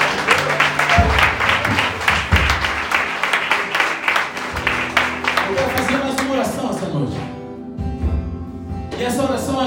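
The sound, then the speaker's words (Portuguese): A church audience bursts into loud, dense applause for Jesus after a prayer, many hands clapping together for several seconds before thinning out, while a voice and sustained tones carry on underneath and after. “Se você crê nisso, aplauda Jesus de todo o coração.”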